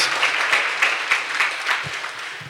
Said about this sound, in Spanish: Así dan un aplauso al Señor esta mañana porque estamos aquí de una célula con cinco o ocho personas.